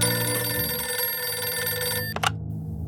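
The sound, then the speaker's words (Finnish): A telephone rings with a bright, sustained metallic bell tone, loud, cutting off abruptly near the end with a brief click. No one speaks. “Halo? Helena puhelimessa?”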